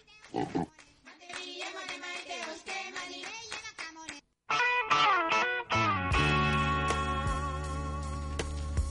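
A quick run of pig oinks and grunts in a choppy rhythm, followed after a brief pause by a loud, dense burst of processed, music-like sound that holds to the end.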